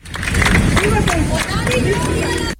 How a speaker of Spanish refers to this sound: y a las 2 y 20 de la madrugada una furgoneta funeraria trasladaba los restos de Keipo de Llano y de su mujer. Al paso del coche de Keipo de Llano se han oído vítores y aplausos de la familia.